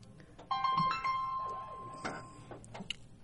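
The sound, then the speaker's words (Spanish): A phone rings once with a steady electronic tone lasting about two seconds, moderately loud, over faint background noise and a few soft clicks. “perdonen el teléfono.”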